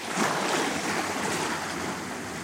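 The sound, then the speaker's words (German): Steady roar of ocean surf washing onto a shore in Bali, a broad hissing wash with a slight swell early on, fairly loud with no voices. “Und das ist etwas, was ich wirklich sehr mit Bali verbinde, ist einfach das Meer.”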